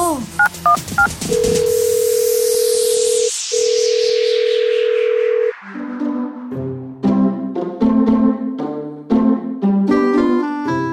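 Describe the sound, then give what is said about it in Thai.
A teacher dials a phone to report to the police: a quick run of short beeping keypad tones, then a long steady tone broken once by a brief pause, followed by a plinking electronic melody. No one speaks. “เมื่อซักถามเด็กๆ จนได้ข้อมูลครบแล้ว ครูตาโต จึงโทรแจ้งความและแจ้งเรื่องกับพ่อแม่ของตัวนุ่ม”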